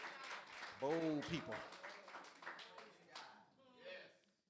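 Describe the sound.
A few scattered claps ring out from a small crowd, sparse and uneven, while a man keeps talking over them.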